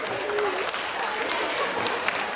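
A steady round of clapping from a small group, dense and continuous for a couple of seconds at moderate loudness, with sharp individual claps scattered through the wash of sound.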